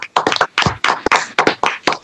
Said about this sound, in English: An actual applause, hey an online applause.